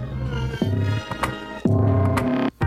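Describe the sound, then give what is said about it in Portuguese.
A mellow instrumental passage of a Brazilian indie song with deep sustained bass notes and layered synth-like tones, chords shifting in slow pulses; no singing yet, played clearly and fairly loud in an MPB style with electronic elements. “ele toca músicas com elementos de MPB, mas com música eletrônica também”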